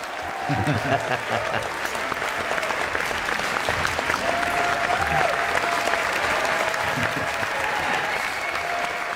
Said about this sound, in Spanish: Pues sí, tenemos ganas, sí es que eh, yo creo que es el aplauso. Es el aplauso lo que hace falta, ¿no?